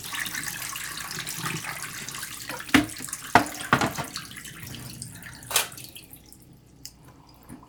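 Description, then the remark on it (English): Film developer liquid is poured out of a developing tank during film processing in a steady splashing stream, then trails off into a few sharp drips and splatters before fading to near silence. No one speaks. “So let's pour out and pour in.”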